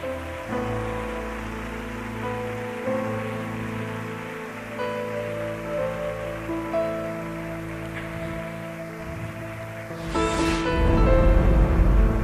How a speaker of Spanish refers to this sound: Amén, aleluya. Demos un aplauso al Rey.